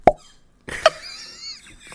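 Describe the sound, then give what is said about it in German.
A voice imitates a beer mug smacking against a child's head: a sharp, hollow mouth pop, a short pause, then a second plop followed by a faint, wavering breathy tone. “ich, ich muss so gerade an das Geräusch denken, wenn dieser, dieser Maßkrug gegen so einen Kinderkopf klatscht, Alter.”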